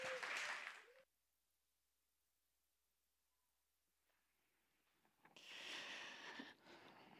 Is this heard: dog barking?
no